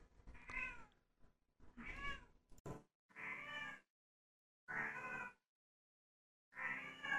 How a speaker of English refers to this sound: Meow. Meow. Meow. Meow. Oh God. Um. Yeah, she wouldn't stop.